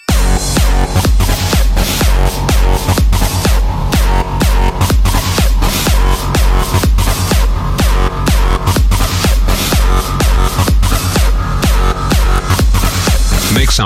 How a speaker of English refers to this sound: Okay, now we need some fat distortion. more distortion. I said more distortion. Time for another fat ass drop.